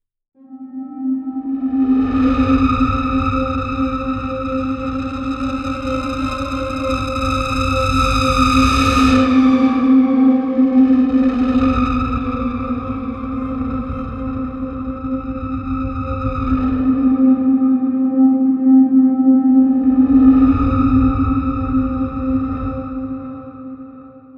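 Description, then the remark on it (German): Synthesizer effects from the Straylight instrument played on an XY pad: a steady, bright harmonic drone holds throughout while deep rumbling swells and shimmering overtones rise and fade in three waves, with no talking. “Und ähm, jetzt habe ich mal Straylight reingeladen, auch wieder ein XY-Feld. Und da spiele ich jetzt einfach mal.”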